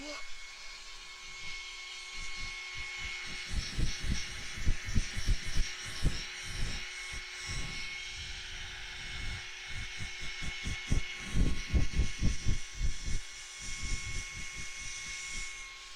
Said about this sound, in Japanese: じゃあ後ろ向いて乾かすからねこれは普通のドライヤーっぽく使えばいいんだよね